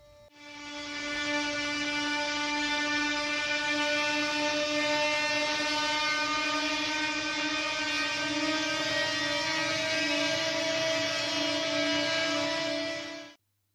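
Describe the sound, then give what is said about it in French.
A loud, steady droning tone with a rich, buzzing stack of harmonics holds for about thirteen seconds, like an ominous alarm siren in a film score: the Joker's signature siren sound. No voices. “Tout d'un coup, il a une signature sonore et c'est comme une sirène d'alarme.”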